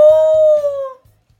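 A single wolf howl, one long steady note that slides slightly downward before fading out after about a second, loud, over a few soft low thumps.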